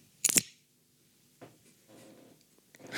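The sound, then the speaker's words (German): A beer bottle cap is popped off with a Canada bottle opener in one sharp, bright burst with a quick hiss, followed by quieter clinks and handling noise and a brief rattle at the end. No one speaks. “Dann hat man das gehört, dass das ein geöffnetes Bier war?”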